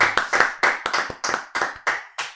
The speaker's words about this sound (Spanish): El aplauso a …, aguante.